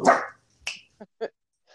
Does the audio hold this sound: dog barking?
yes